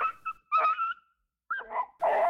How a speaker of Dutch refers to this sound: De hond jankt en wankelt weg.